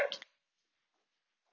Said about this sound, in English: Y'all can hear my dog in the background just freaking out over nothing.